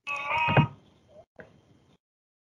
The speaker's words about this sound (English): Fuck was that? turning things off. Phone making random noises.